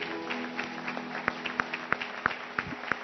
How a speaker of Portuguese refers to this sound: Um forte aplauso.